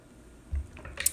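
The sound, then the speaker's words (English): Someone takes a quick sip of water and swallows: a soft, low gulp followed by a brief wet click, quiet and with no talking. “excuse me, drink some water.”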